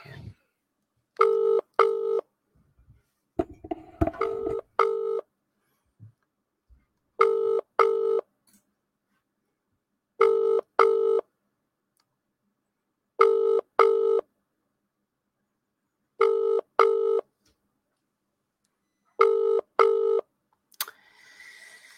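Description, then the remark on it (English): A phone's ringback tone repeats in steady double pulses about every three seconds, six rings in all with no answer, after brief rustling and handling noise near the start. “let's uh, see if he'll answer. Just getting the phone out.”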